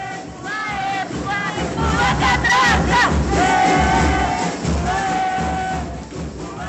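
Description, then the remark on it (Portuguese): A large crowd of students shouts protest chants together while staging a catracaço at the Unicamp university restaurant in October 2022, loud and continuous, with overlapping voices rising and falling in a rhythmic, chanted cadence throughout. “Nesse episódio, vocês ouviram gritos de luta de estudantes fazendo catracaço no restaurante universitário da Unicamp.”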